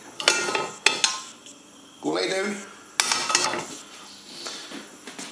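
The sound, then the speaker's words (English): A metal frying pan clatters and scrapes against a gas stovetop in a kitchen in a few sharp knocks and shuffles as the gas under it is lit, with a brief spoken command in between. “Okay, this is an unscripted part, so I'm uh, just lighting the gas, lighting the gas under the frying pan.”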